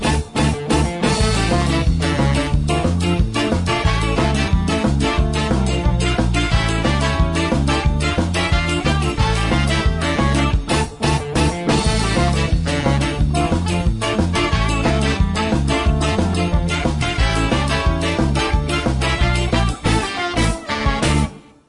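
A full-band rock song plays loudly and steadily throughout, with driving drums, bass and guitars in a dense, continuous mix and no talking over it.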